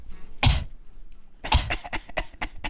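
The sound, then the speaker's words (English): Two loud, close coughs right into the microphone, one short burst followed after a pause by a longer, rattling cough with several quick bursts. “okay, maybe don't cough into the mic.”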